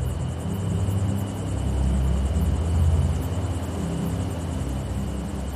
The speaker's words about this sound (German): Von weitem ist ein leiser Donner zu hören. Noch ist das Gewitter fern, aber lang wird es nicht mehr dauern, bis es uns erreicht.